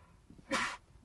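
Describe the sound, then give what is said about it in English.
A single short, sharp sneeze bursts out, a quick breathy blast lasting under half a second against a quiet background. “Bless you.”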